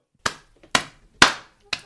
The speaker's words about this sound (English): I'm applauding.